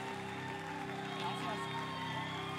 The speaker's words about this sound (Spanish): aplauso. Come on.